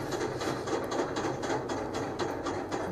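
A roller coaster chain lift clatters steadily, sharp metallic clicks repeating in a quick, even rhythm over a continuous mechanical rumble, fairly loud, with no voices.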